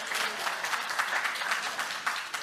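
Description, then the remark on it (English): An audience in a church applauds steadily, a dense wash of many hands clapping at once, fairly loud and sustained throughout with no voices standing out. “Somebody should have stood, clapped.”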